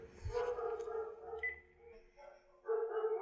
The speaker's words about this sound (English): Those aren't my daughter's dogs. Mm. Those are the neighbor, the naughty neighbor's dogs. Your dogs are the nice ones? My dogs are the nice ones.